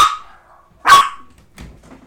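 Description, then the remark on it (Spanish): A dog named Toby barks sharply twice, the second bark loudest, followed by a softer, fainter yelp, with short pauses between and no talking over it. “Si no ladra este güey, es porque no”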